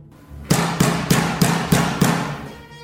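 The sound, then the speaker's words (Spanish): Six heavy, forceful blows hammer on a door in a fast, steady rhythm, each a loud booming thud with a brief ringing tail, then the pounding stops. No one speaks. “Con total brutalidad golpean a la puerta.”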